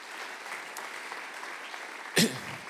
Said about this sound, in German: ich bitte dich, auf die Bühne zu kommen und auch ihm dürft ihr einen riesen Applaus geben.